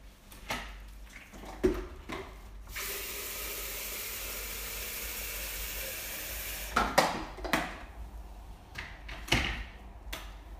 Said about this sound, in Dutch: Als eerst doe ik ongeveer 1 liter water in de waterkoker